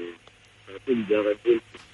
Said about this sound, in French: il faut parler bien dans le téléphone parce que là on vous entend pas.